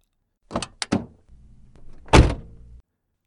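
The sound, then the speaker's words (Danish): The roof-hinged door of a blue McLaren 720S unlatches with a couple of sharp clicks, then swings open with a low mechanical whir and a solid thunk, clear with no one talking, at the Ring Knudstorp track. “Det er svært ikke at have en smule fugtige håndflader, da jeg svinger døren til den blå McLaren 720S op.”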